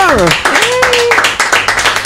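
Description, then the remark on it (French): A burst of applause from a small group welcoming a guest on a radio show, quick claps running for about two seconds, fairly loud, with a voice whooping and calling out over the clapping. “on va quand même pouvoir écouter l'émission parce qu'on va applaudir notre invité”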